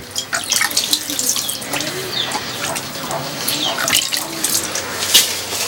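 Hand-washing water runs and splashes steadily at an EcoSan toilet, as from a tap, draining away down a special drain with a continuous gurgling hiss. Faint bird calls sound in the background.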